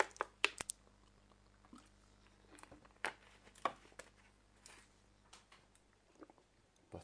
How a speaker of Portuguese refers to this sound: Lembrando a vocês, lembrando a vocês, antes de lembrar, vou beber uma água aqui.